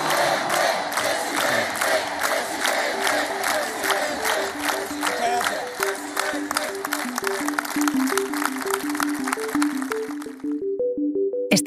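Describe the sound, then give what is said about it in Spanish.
A large crowd at a Partido Popular event in Spain applauds loudly and steadily to welcome party president Alberto Núñez Feijóo, with rhythmic clapping and cheering voices rising into a chant, before the noise cuts off abruptly near the end. “Escuchamos con atención y recibimos con un fuerte aplauso al presidente del Partido Popular, Alberto Núñez Feijóo.”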